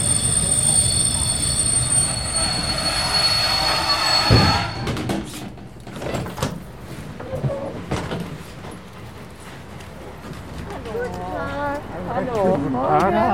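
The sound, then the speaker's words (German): A train rumbles into Chemnitz Hauptbahnhof in Germany, where it terminates, with high metallic wheel squeal for several seconds, then the noise drops to a quieter hum with clatter, and voices can be heard toward the end. “Sehr geehrte Fahrgäste, wir erreichen jetzt Chemnitz Hauptbahnhof. Dieser Zug endet dort.”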